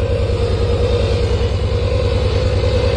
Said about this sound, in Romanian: O mașină de spălat rufe. Mi se pare normal acest sunet.